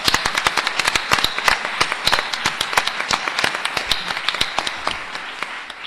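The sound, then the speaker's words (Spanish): An audience at a UNAM Cultural Diffusion and Radio UNAM event claps steadily to welcome Dr. María Teresa Uriarte, coordinator of Cultural Diffusion, a dense patter of many hands with sharp individual slaps standing out, sustained at an even level before tapering off near the end. “Así que vamos a darle la bienvenida a la doctora María Teresa Uriarte, coordinadora de Difusión Cultural, con un fuerte aplauso, por favor.”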